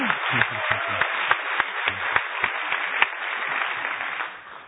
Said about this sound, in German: Ja, super. Danke nochmal. Applaus für Sie. Große Klasse.